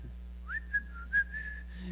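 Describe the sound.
Someone whistles a short, bright melodic phrase of a few sliding notes, clear, with a steady low hum in the background and no talking.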